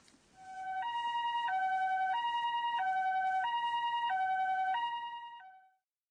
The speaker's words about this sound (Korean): 응급차 사이렌 소리인데요. 네, 일본어로는 이렇게 말합니다. 비뽀 비뽀.